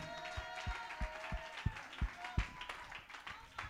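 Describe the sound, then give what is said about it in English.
An audience claps their hands in a steady rhythm, sharp beats about three per second, over a loud wash of cheering and shouting in triumph and mingled voices that thins out toward the end. “Somebody ought to clap your hands and shout with a voice of triumph.”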